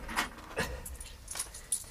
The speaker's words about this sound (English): these pieces of metal from the bottom of the box, I'm fairly certain they're coins. Pretty worn, of course. Not exactly in mint condition, you might say. You can hardly make out the head at all.